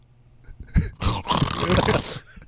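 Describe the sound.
A person imitates the snoring of someone dozing off in a car: a short lead-in breath, then one long, loud, rasping snore-like exhale lasting over a second before trailing off.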